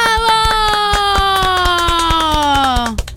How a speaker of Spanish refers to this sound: Eh, tristón el aplauso igual, ¿eh?